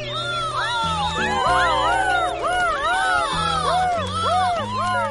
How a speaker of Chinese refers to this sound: 不远处的海港还盘旋着一群海鸥，海鸥们朝着天空发出了高亢的叫声。